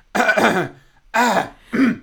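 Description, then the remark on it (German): Three throat clearings in quick succession, a longer rough one followed by two shorter ones, loud with brief pauses between, and no talking. “Das wäre so geil, wenn beim Tennis sich die Leute einfach immer räuspern würden.”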